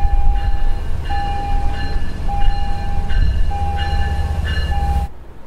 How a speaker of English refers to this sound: at the train station, the meter got up to 86 decibels as a train pulled in.